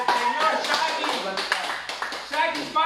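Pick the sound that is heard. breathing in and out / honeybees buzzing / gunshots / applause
applause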